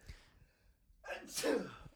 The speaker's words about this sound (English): I'm sorry. I'm sneezing on our podcast.